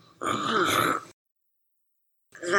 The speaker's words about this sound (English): As the children and old wheelchair user retreat to a cave nearby interior chief, the wizard storyteller, coughs, continuing her story.